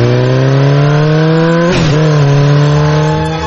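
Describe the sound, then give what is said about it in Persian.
A motorcycle engine, modified with add-on parts to make it louder, revs loudly, a steady throaty drone that briefly dips and surges back partway through before holding strong to the end. “این عزیزان با استفاده از یه سری ابزار صدای موتورشون رو دیده شده تا صدها شاید هم هزاران دسیبل اعصاب خورد کنتر کردند”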